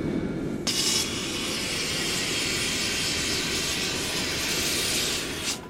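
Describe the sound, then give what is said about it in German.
A gas flame, burning a hole the size of a 1-euro coin into a red-hot glass bulb, roars to life with an abrupt onset and holds a steady, loud hiss over a low rumbling undertone for about five seconds, with no voices. “Eine Gasflamme brennt ein Loch von der Größe eines 1-Euro-Stücks in den glühend heißen Glaskolben.”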